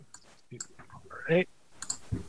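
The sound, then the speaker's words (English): Dice clatter in a scatter of quick, sharp clicks and knocks over a couple of seconds, with a brief vocal sound rising in the middle; the dice are rolled for an intelligence and politics check. “Fuck you, dice.”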